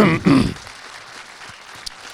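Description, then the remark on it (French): Audience applause makes a soft, even wash of many hands clapping, tapering off toward the end, with a brief voice or cough rising over it at the start. “Vous êtes gentil d'applaudir, mais cet applaud-là va à toute l'équipe, puis les actrices, acteurs qui étaient là-dessus aussi.”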